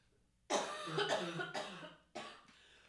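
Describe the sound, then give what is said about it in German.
A harsh coughing fit: four rough bursts in quick succession, the first three running together and the last coming after a short pause, with no talking. “Ja, ich, ich, ich, vor allen Dingen, ich muss mal so abhusten und ich reiß mich gerade so ab.”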